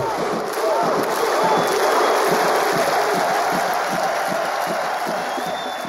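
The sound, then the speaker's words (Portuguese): A large crowd of Icelandic football fans performs the Viking thunderclap, clapping in a steady, accelerating rhythm and shouting with each clap, with loud cheering rising over a dense roar of voices and ending in an ovation. “E na hora que eles batem a palma, eles gritam uhul, né? Que é, um, enfim, uma coisa que as pessoas atribuíram a, a, um grito de guerra viking.”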